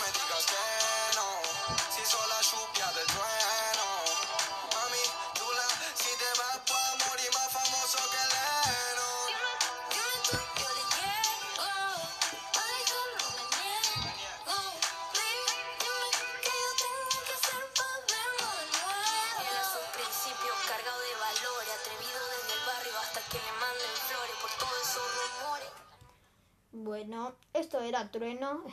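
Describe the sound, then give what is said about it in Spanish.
A music recording plays loudly, with sung or rapped vocals over a dense, steady beat for about 25 seconds, then stops abruptly as a voice briefly speaks. “Esto es música.”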